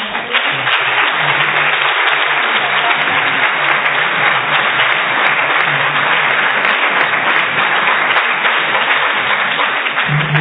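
Sustained audience applause fills the whole stretch, a dense, steady wash of many hands clapping at close range, loud and even throughout with no voices standing out.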